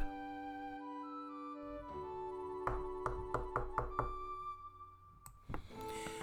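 A quick series of about six firm, evenly spaced knocks on Jay's door, sounding over a steady, sustained musical background with no talking.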